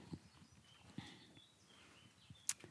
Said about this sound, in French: Donc là, on sort dehors pour passer dans l'autre, l'autre partie de ton atelier. On va entendre les petits oiseaux.